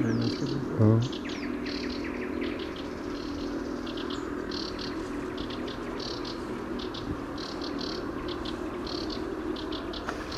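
A reed warbler's song fills the scene with repeated high chirping calls in short bursts, steady throughout over a faint outdoor background hum.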